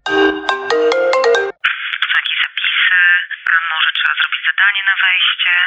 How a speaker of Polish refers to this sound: No i wtedy rozdzwoniły się telefony.